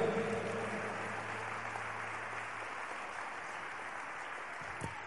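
A church audience applauding together in praise of God after a prayer, a dense, steady wash of clapping hands for several seconds, with a low hum underneath and a brief louder clap near the end.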